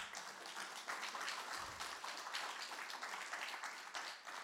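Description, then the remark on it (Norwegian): An audience at a worship gathering applauds a couple seated on the front bench: a dense, steady wash of many hands clapping that holds at an even, fairly soft level for the whole few seconds, with no voices over it. “Skal vi gi dem en god applaus?”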